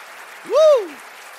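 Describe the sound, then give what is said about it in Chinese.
A crowd at an event venue in Kaohsiung, Taiwan claps and cheers with a steady noisy wash, while one loud, long scream swoops up in pitch and falls away over about half a second. “尖叫声大一点，好不好？”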